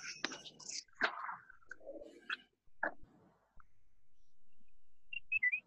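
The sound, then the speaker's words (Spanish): A brief electronic video intercom call chime of a few quick, bright tones sounds near the end as a call is placed to a home intercom installation, following soft whispery rustling and scattered clicks. “El pipiribí ha sonado.”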